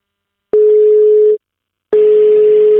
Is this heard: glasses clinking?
no